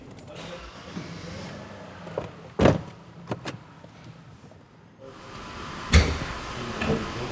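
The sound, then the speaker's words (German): A car is driven outside, idling and moving with a low, steady rumble, broken by two sharp, solid thuds of a car door shutting a few seconds apart. No one speaks. “ich äh, fahre den mal da draußen hin.”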